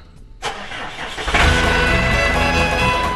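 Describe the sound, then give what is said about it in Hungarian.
A farmer jumps onto a cultivator; its engine cranks with a short burst, then catches and settles into a loud, steady low rumble with a throbbing idle. No voices. “Mihálovics gazda most felpattant egy kultivátorra, utána néz a kocaforgónak”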